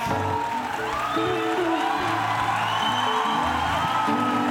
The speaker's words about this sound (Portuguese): Vamos dar uma salva palmas